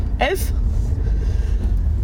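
A car's steady, even low engine rumble fills the whole stretch, with a brief vocal sound near the start as the car begins to roll on a very cold Sunday morning around 7:11.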